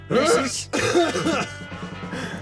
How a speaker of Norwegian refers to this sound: Nå hosta jeg rett på deg. Takk. Kanskje jeg egentlig hoster inn hånda.